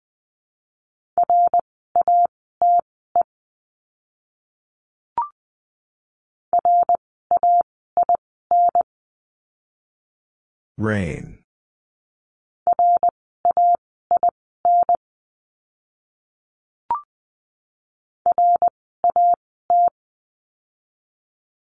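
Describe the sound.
Steady mid-pitched Morse code beeps at 20 words per minute tap out short practice words for the letter R in quick dot-and-dash bursts, pausing between groups, with a single spoken word in the middle of the sequence.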